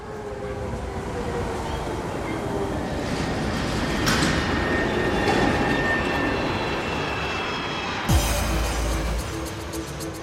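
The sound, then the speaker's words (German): A subway train rumbles along loudly and steadily, with whining tonal squeals riding over the heavy low roar, then an abrupt clunk near the end as the sound shifts. “Ob in der Londoner U-Bahn, in New York oder München, zu Beginn der Corona-Krise schien der Großstadtstress wie weggefegt.”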